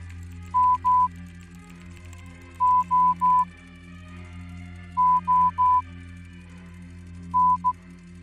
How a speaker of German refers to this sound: Okay, ich vermute, das war Morsecode und ich habe keine Ahnung von Morsecode.